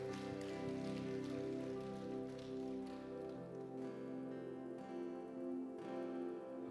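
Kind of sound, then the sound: crowd, audience applause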